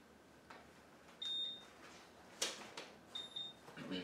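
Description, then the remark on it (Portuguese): A clock timer used to time speakers gives two short, high electronic beeps about two seconds apart while it is being reset, with clicks and button presses around them and no one talking. “caramba, para de apitar, cara, por favor.”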